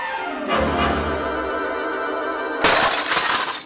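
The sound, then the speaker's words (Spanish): A cup shatters loudly, a bright crash followed by ringing, tinkling pieces, then a second burst of breaking shards near the end. No one speaks. “Y aquí se rompió una taza y el padre se va a su casa.”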